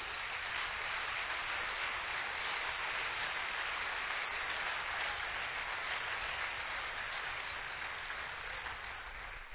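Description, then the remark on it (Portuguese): An audience at a church service claps together for the Lord in a dense, steady burst of applause, a continuous hiss of many hands with no voices, holding an even loudness for about ten seconds. “Se esse aplauso é para o Senhor, pode aplaudir forte, viu irmão?”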